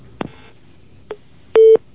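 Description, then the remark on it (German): Three short electronic telephone tones sound in sequence: two quick beeps followed by a longer, louder steady tone, like buttons being pressed on a phone system, with no voices. “nimm die Finger von der Telefonanlage.”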